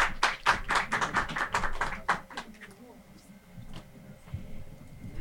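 Audience applause welcoming a guest, of quick, sharp claps that rings out strongly for a couple of seconds, then thins to a few scattered claps and fades under a faint murmur.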